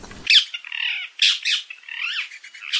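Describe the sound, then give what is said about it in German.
A rose-ringed parakeet (small Alexandrine or ring-necked parakeet) in Cologne squawks repeatedly in harsh, high-pitched bursts, a run of loud screechy calls with brief gaps, with no voices. “Ja, das ist der kleine Alexander-Sittich oder auch Halsband-Sittich genannt, der mittlerweile mit 3000 Vögeln in Köln ganz gut vertreten ist und hat uns auch schön begleitet, würde ich mal sagen.”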